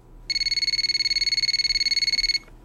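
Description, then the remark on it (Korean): A telephone at home rings suddenly with a single loud, shrill burst of about two seconds, its bright tone fluttering in a rapid rattling trill before stopping abruptly. No one speaks. “집에 있는데 갑자기 요란스럽게 전화벨이 울렸습니다.”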